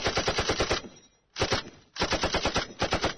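machine gun fire

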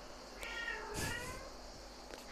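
cat meowing

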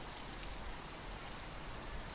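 rain falling

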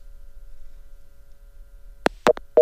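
busy tone

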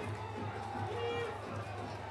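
stadium crowd applauding

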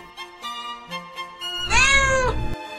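cat meowing

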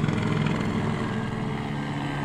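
helicopter flying close overhead

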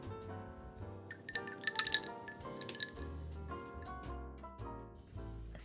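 sipping water

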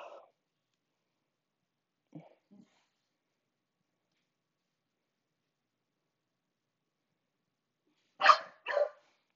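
dogs barking

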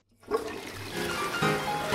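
toilet flushing

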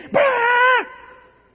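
small dog barking

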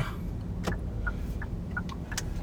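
car driving

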